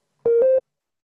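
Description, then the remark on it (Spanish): A brief, steady sine-wave synthesizer tone in a fairly high register, holding for about a third of a second with a slight upward step in pitch midway, heard alone. “o como sonidos más agudos.”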